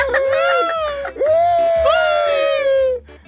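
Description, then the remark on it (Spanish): A voice imitates crying, producing long, wavering high-pitched wails in two sustained bursts with a brief break between them, loud and strained like an exaggerated sob. “No me imites tú, …, eh, que yo no te imito cuando llora también con salvadoreño.”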